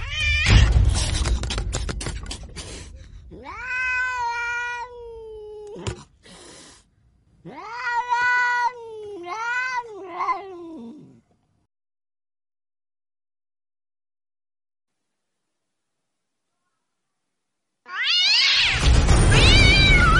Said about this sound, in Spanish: La gata, encaramada a las mantas, gruñía y arqueaba el lomo y los ojos le brillaban con un desagradable fulgor amarillento.